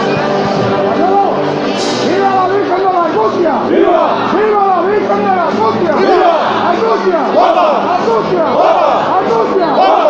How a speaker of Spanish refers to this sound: y vítores de los anderos, de los hombres de trono, de la Virgen de las Angustias que levanta los aplausos del público que se agolpa en esta calle Campanas, ya llegando al final de la calle Campanas